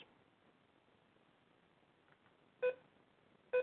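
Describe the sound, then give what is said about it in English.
Two short, loud electronic beeps from a device that beeps whenever it is touched sound about a second apart over a faint, steady background hiss, each a bright tonal blip like a device's alert tone. “Anytime I touch this goddamn thing, beep, beep, beep, beep, beep, nonstop.”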